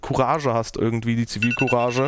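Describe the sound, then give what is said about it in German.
An alarm clock set for 1 o'clock rings with a steady, high electronic tone that starts partway through, sounding under continuous talking. “Ups, das war mein Wecker um 1 Uhr.”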